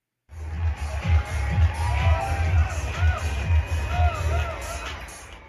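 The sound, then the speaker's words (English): A Pride Parade crowd in Washington, D.C. marching and cheering, including a contingent from Lockheed Martin carrying a huge rainbow-colored Lockheed Martin banner and rainbow paraphernalia, with a steady roar of overlapping voices, scattered whoops and shouts rising above a continuous low rumble of babble. “Let's go to the Pride Parade from Washington, D.C., which had a contingent from noted LGBTQIA champions Lockheed Martin.”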